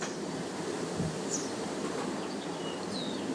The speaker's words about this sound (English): it's still very windy even in our back garden.